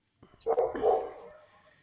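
The speaker's own dog barks in a quick pair of loud, harsh barks that fade into a brief trailing whine.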